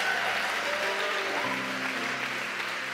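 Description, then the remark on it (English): An audience claps steadily and loudly for a few seconds for the fathers present on Father's Day, a dense wash of applause that stays full and even throughout, with no one speaking over it. “Can we give it up for all the fathers in the house?”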